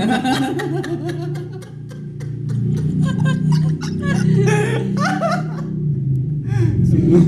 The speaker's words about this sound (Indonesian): ini ada suara motor